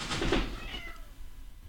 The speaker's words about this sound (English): Sorry, that was my cat. Apparently going through some sort of unholy metamorphosis or something. Or menopause.